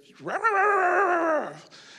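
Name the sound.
voice imitating dogs barking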